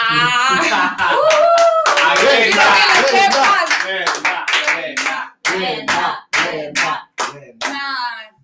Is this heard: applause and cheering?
yes